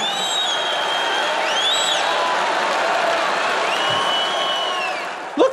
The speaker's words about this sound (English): I can't believe people are cheering for this.